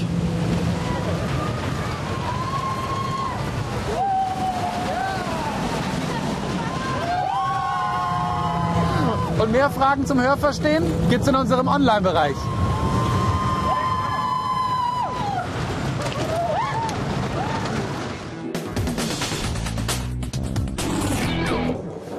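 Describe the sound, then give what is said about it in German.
A roller coaster roars past with a steady rushing rumble while riders scream in loud, wavering high-pitched bursts; the screams fade and a voice speaks at the end. “So, auf den Schreck mit der Achterbahn.”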